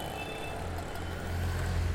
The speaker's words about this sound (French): Dans un infernal staccato de klaxons et de pots pétaradants, scooters, triporteurs, tuk-tuk, voitures, bus et camionnettes forment un défilé incessant dont la compacité rappelle celle d'un banc de sardines.